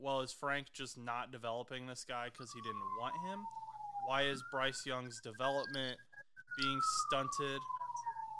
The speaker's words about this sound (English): Got the cops coming after you. I don't know if the, the Connecticut State Troopers out there. I don't know if you guys can hear that in the background, but there are police sirens going off.